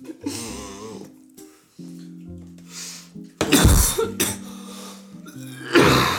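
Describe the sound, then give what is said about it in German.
A person coughs repeatedly and loudly in harsh bursts clustered in the second half, with a steady tonal hum in the background and no speech. “Ey, wie ein Knecht am Husten, Digga.”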